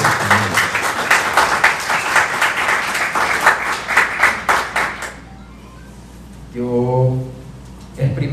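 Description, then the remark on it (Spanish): A crowd of people at a Christian worship gathering applauds loudly with dense, steady clapping for about five seconds after a prayer, then it stops and a man's voice briefly speaks. “Pueden darle un fuerte aplauso a la palabra”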